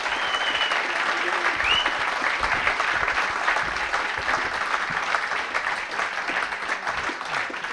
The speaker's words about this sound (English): give them a big round of applause as well.